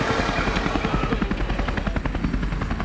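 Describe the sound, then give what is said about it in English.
A medevac helicopter flies overhead, its rotor blades thumping in a rapid, steady rhythm over a loud engine roar, with no voices. “You've talked about being life flighted out. I, you know, I guess medevaced out.”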